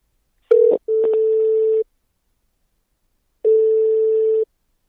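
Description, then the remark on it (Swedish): A steady telephone ringback tone sounds as a call to the Varberg direkt service in Varberg connects: a short click-like burst, then two long even tones about a second each separated by a pause, clear, with no talking. “Ditt samtal kopplas nu till Varberg direkt.”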